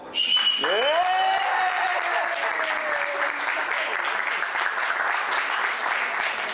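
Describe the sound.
The final held note of a song played by coach Pia Sanhage for the players and delegation members slides down and fades as steady, dense applause breaks out, continuing loudly and evenly with a few voices cheering until the end.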